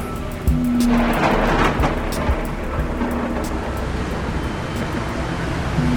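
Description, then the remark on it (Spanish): Steady heavy rain hisses throughout, with deep rumbles of thunder rolling underneath, a broad, continuous storm soundscape with no voices, the rain falling on a Corsa car on the road between Buenos Aires and Rosario. “Un Corsa bajo la lluvia entre los casi 300 kilómetros que separan Buenos Aires de Rosario.”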